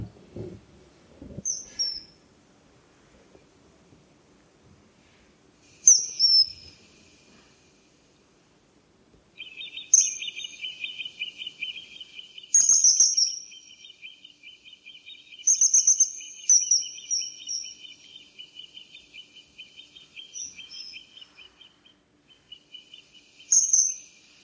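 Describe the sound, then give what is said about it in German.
Shrill, piercing whistles of a common kingfisher flying past ring out in short bursts at irregular intervals, over a steady insect-like trill that starts partway through. No voices. “Also das ist äh, oft nur dieser schrille, dieser schrille Ton im Vorbeifliegen ähm, macht einen darauf aufmerksam, dass dieser Vogel da ist.”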